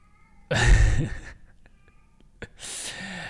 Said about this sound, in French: Et tu entends mon chat qui miaule parce qu'il a faim.